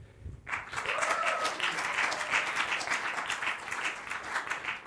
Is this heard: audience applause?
yes